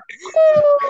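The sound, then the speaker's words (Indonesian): A voice mimics an ambulance siren wail: one loud, sustained tone that slides slightly downward for about half a second, with short vocal sounds just before and after. “Gua kira ambulan.”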